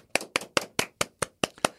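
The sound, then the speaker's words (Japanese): Eight crisp hand claps of applause in a steady, evenly spaced rhythm, fairly loud, with no talking. “ふーちゃんまず拍手だ。”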